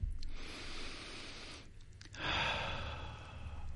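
A person breathes heavily and slowly up close: a long, airy exhale, a short pause, then another deep, noisy breath, with no talking.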